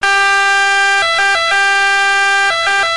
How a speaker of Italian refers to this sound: Volete sentire la differenza? Questa è un'ambulanza normale.